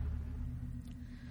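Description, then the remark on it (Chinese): A deep, steady thunder rumble rolls on for just over a second during a heavy rainstorm with lightning, heavy in the low end and holding a fairly even loudness without any sharp crack or speech. “此时，豆大的雨丁正毫不留情的洗刷、拍打着玻璃窗，而忽然，轰隆一声巨响，一道十分恐怖的闪电划破天际，照亮了整个走廊。”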